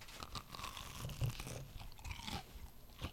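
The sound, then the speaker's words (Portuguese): A crisp crunch as teeth bite into a fried bolinho snack ball, followed by several softer crunching chews in an irregular rhythm, with no talking. “Ó, vou morder o bolinho de país só pra você ouvir o barulhinho crocante, ó.”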